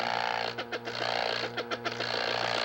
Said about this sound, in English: Now that we have mixed this for 30 seconds, we'll disengage the clutch and vibrate to get the material down from the side of the can